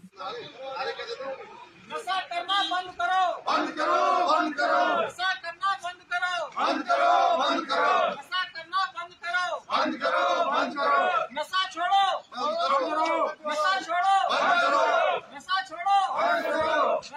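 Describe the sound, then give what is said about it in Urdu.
A large crowd shouts anti-drug slogans in unison at a rally held by the 7th Battalion of the Sashastra Seema Bal in the Batyas area of Doda district. Rhythmic bursts of massed voices rise and fall in a steady call-and-response pattern, loud throughout. “ضلع ڈوڑا کے بٹیاس علاقے میں آج سشستر سیما بل کی سات بٹالین کی جانب سے منشیات کے خلاف ایک ریلی نکالی گئی”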